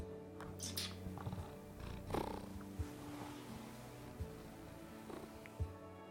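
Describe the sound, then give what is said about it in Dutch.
A cat purrs in a steady, low, rumbling drone that continues throughout, with a few soft bumps and rustles of movement. No one speaks. “kun je iets langer knorren in de microfoon?”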